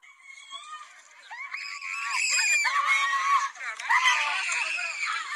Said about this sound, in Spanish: pero usted que me escucha en la radio en toda la República Mexicana, escucha usted los gritos de desesperación de una mujer haitiana en el momento que es detenida por el Instituto Nacional de Migración.